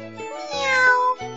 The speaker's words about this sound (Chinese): 喵一声，小泥猫缩回来前爪，伸了个懒腰，打了个大大的哈欠。